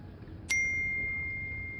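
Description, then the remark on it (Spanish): A phone's WhatsApp message notification rings out once as a bright, clear chime that lingers and slowly fades, over low, steady outdoor background noise. “Ah, mira WhatsApp.”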